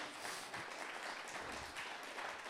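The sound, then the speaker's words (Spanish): An audience at a church service breaks into sustained applause for Christ, a dense, steady wash of many hands clapping at once, loud and continuous throughout with no voices standing out. “Dale un fuerte aplauso al Cristo de la gloria.”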